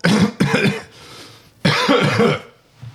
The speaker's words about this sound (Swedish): Efter det sista slaget så hostar … till lite.